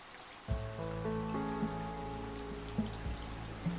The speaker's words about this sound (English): And now here I am today, taking a shower in my tiny Parisian apartment remembering the comfort that the house of my Ukrainian grandma brought to me.